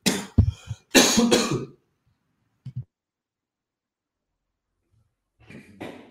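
A harsh fit of coughing and choking opens, followed by a brief single cough, a long silence, then a softer sputtering cough near the end. No one speaks.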